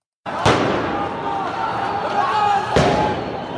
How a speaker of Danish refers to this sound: Men demonstrationerne, som du kan høre øh, herunder, er fortsat.